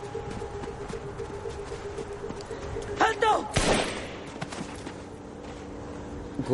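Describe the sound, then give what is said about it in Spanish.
A couple of sharp, loud gunshot cracks burst out around the middle in thick fog, standing out against a steady low hum and murky background noise that otherwise stays fairly even. “Gus observa destellos de disparos.”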